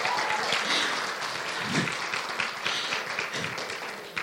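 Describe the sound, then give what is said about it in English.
A crowd applauds steadily, a dense wash of many hands clapping at once, holding fairly even loudness for several seconds with no voices standing out, welcoming a volunteer who comes up to demonstrate push-ups for building endurance. “Give him a hand clap.”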